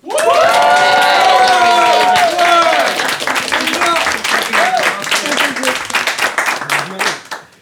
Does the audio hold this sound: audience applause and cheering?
yes